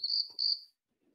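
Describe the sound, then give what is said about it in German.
A WhatsApp bird-call message notification sounds on a phone: two quick, shrill chirps in a row, steady and high-pitched, followed by silence and no talking. “Was war das für ein Vogel jetzt? Hast du in deinem Leben ja, WhatsApp Vogel versteckt?”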